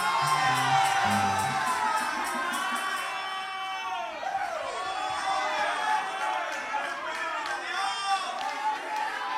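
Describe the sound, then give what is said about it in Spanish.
A church audience erupts in loud, sustained shouting and whooping praise to God, many voices overlapping in a continuous roar with high cries rising above the crowd throughout. “Oye, si él está vivo y tú estás vivo, grite para arriba alabanza.”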